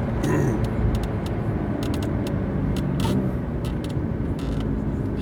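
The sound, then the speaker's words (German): A heavy truck, apparently Russian, drives just ahead on the road. Its engine drones steadily and loudly, with several short, sharp air-brake hisses scattered over the rumble as it brakes hesitantly. No one speaks. “habe da einen ganz komischen LKW vor mir.”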